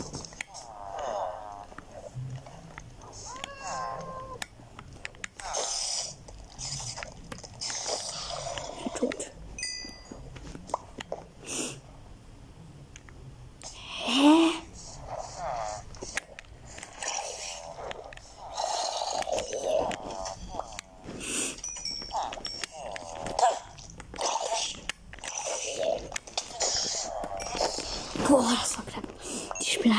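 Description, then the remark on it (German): A video game spider hisses and clicks in raspy, breathy bursts with sharp ticking clicks, repeating irregularly at moderate loudness, with some voice-like sounds mixed in. “Oh oh, das ist eine Spinne.”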